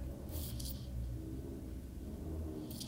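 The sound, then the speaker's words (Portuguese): A tuned car engine rumbles and revs outside, a deep, steady drone with slight surges in pitch, plus a few brief hissing bursts, with no voices. “Há alguém lá fora a fazer Ah, ok, é um carro.”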